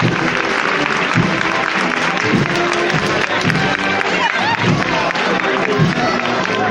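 A street crowd applauds a passing procession as the paso de palio (canopied float) comes out into the street and regains its full upright position, steady dense clapping sustained throughout with a murmur of voices and scattered cheers mixed in.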